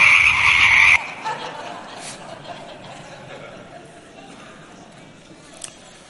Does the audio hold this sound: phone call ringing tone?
no